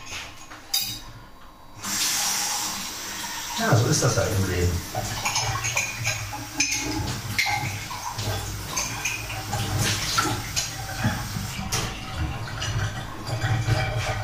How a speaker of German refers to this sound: So, jetzt werde ich mal eine Tasse waschen. Ausspülen, Tasse waschen, ja. Ab in die Waschmaschine mit der Tasse. Abwaschen.